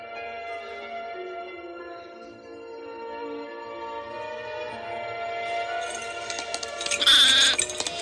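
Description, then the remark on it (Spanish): A sheep, being led out of a cave, bleats in long, wavering, nasal cries that carry on almost without a break, then a brighter, rustling burst with a faint metallic clink comes near the end. “Moisés sale de la cueva con la oveja.”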